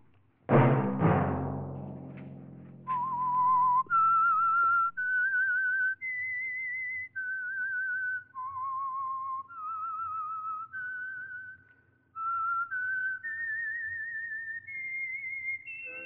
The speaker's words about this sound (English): Let that whistle be your signal for the Signal Oil program, The Whistler, each Sunday night at this same time.